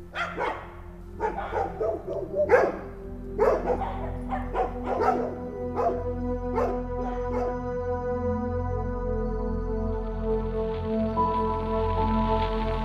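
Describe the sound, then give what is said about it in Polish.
Dogs bark in the distance, a flurry of sharp, irregular barks over the first half that thins out, leaving a steady low hum and sustained tones in the background. “W dzieciństwie te szczekające psy ten dźwięk budził grozę.”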